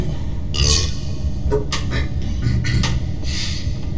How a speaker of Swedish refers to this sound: Rapa till där liksom. En lustig, äcklig bubbla som förut.